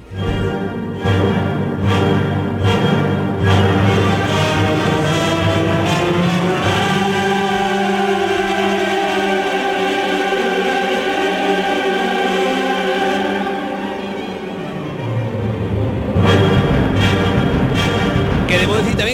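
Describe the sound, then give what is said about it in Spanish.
A full choir and orchestra perform the Dies irae from Verdi's Requiem in Seville Cathedral: a loud, dramatic sacred passage, sustained voices and strings swelling over deep low brass, with heavy pounding drum strokes at the opening and again near the end. “el 10-ire más impactante de todos, que a mí el que más me gusta”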